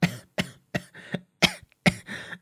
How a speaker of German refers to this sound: Ich muss husten, weil ich so geschrien habe.